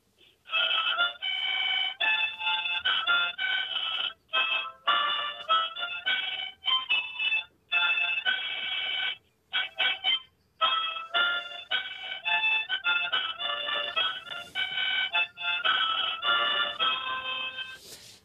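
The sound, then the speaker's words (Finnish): A harmonica plays a slow, stately melody, a short part of the national anthem, reedy chords sustained in phrases broken by short breath pauses, with no talking over it. “mutta se on luonnolla mulla on musiikki, niin minä olen tottunut soittamaan huuliharppua.”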